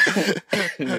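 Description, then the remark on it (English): Three quick, harsh coughs in a row, fairly loud, separated by brief pauses, with no talking. “boy, this was not coughing during his”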